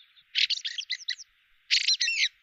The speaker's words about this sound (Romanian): De primăvara de vreme și până la mijlocul verii, una din cele mai plăcute, dar și mai răsunătoare voci din corul dimineții este cea a sturzului cântător